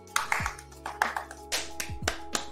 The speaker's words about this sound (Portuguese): Palmas. E uma salva de palmas. Aplaudir a todos vocês também.